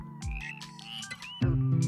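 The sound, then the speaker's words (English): A chorus of frogs croaks in overlapping bursts, steady, with sustained tonal sounds humming beneath and a louder surge near the end. “I adore this poem, especially the line The world is loud where it is alive, which evokes not only the sounds of nature, including, of course, frog choruses but also the sounds of bustling life in the city.”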